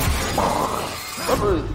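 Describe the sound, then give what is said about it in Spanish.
A door is kicked down by a squad of camouflaged law enforcement officers with a loud, splintering crash of breaking wood, a sustained burst of noise with a brief voice sounding near the end. “Camuflados y tirando una puerta abajo de una patada.”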